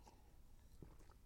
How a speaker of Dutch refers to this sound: En dan moet ik even een slokje water nemen. Want ik moet er even van bij komen, mensen.